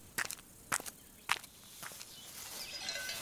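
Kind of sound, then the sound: sound effect, footsteps walking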